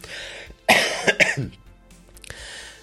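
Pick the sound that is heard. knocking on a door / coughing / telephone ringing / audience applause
coughing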